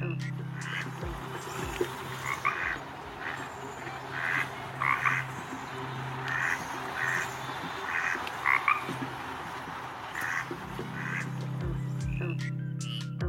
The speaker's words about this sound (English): First, this recording they captured of what I can only assume was a very important conversation between a frog and a duck.